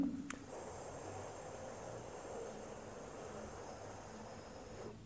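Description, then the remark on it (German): A long, steady hissing inhale drawn through the teeth as part of a Sitali Sitkari cooling breathing exercise, a soft airy rush that holds evenly for several seconds, quiet and without any talking. “Atme zischend ein.”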